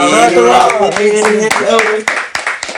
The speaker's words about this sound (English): You want us to clap and like scream? No, yeah, I want some claps.